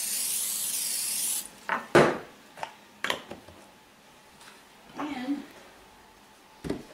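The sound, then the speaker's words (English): Cooking spray hisses from an aerosol can in one steady burst of about a second and a half, followed by scattered short scrapes and knocks of a pan being handled. “I'm now going to spray the pan that we're going to use with pan spray.”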